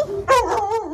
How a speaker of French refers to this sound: c'est un berger d'Anatolie, 65 kilos d'amour,